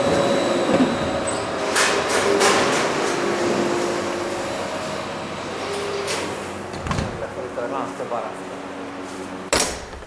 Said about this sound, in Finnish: Täältä näkyy, kun toi juusto menee leikkurille. Ja kohta se työntää sen tonne raastimeen sisälle ja nyt se rahtin alkoi pyörimään, kuuluu tuo ääni ja kohta tuolla näkyy, kun juustorahtit alkaa tulemaan tuolta alhaalta.